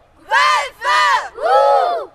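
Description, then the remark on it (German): A group of scouts bellows the battle cry "Wölfe! Huh!" in unison at the closing round of their group evening meeting: three loud, drawn-out shouted bursts with brief pauses between them, the many voices blending into one rough, ringing roar. “Am Ende des Heimabends kommt noch die Schlussrunde, bei der man noch mal richtig brüllen kann.”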